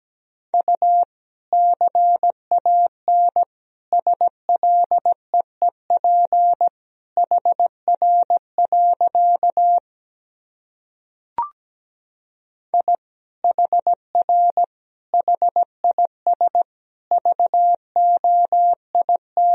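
Morse code beeps at 17 words per minute at a single steady pitch, keyed in quick dot-and-dash groups with short pauses between words; a longer silence with one sharp click interrupts midway, then the sending resumes.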